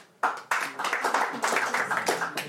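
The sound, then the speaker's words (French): A stand-up comedy audience breaks into applause, answering whether they came from farther than Metz that evening: a dense patter of many hands clapping that starts abruptly and holds steady at a lively level for a couple of seconds, with faint voices mixed in. “Est-ce qu'il y a des gens qui viennent de plus loin que Metz ce soir par applaudissement Dites-moi.”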